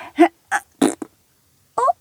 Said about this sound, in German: Oh nein, du hast schon wieder gepupst.